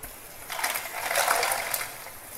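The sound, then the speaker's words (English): Water is poured into a bowl of ice to make an ice bath, a steady splashing and trickling that swells for a couple of seconds, with no one talking. “Just gonna add some water to this as well.”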